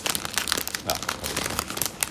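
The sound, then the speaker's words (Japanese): Dense, irregular crinkling of a plastic snack wrapper while someone eats chocolate chip whole wheat cookies, a continuous rustle of sharp crackles lasting the whole moment, with a voice talking faintly underneath. “お菓子もね頂いてるんでねお菓子食べながら、うん、バリバリ、ね、バリバリただ食べて終わるっていうのもいいかもしれない”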